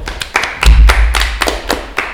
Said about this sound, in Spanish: Un aplauso, por favor.